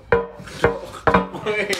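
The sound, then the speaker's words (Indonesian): Three loud, sharp knocks on a wooden table, about half a second apart, followed by a couple of softer taps, with a faint voice underneath. “Oh, ketok meja”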